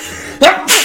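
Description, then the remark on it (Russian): A single loud sneeze: a quick voiced intake followed by a sharp, breathy burst, heard on its own with no talking. “Будь здоров, Ой. правду говоришь.”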